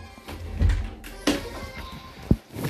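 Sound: door being closed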